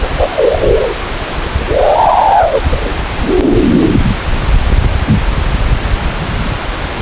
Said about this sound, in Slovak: Ďalší zvuk sa dá opísať ako cvrlikanie. Vytvárajú ho vlny horúcej plazmy, keď prechádzajú cez prúdy slnečného vetra.